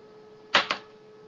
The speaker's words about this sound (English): Roll a dice for me.